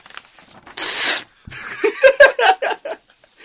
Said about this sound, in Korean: 찢어버리겠습니다. 찢어버려봐. 찢어, 찢어. 네? 찢는 소리 들려줘.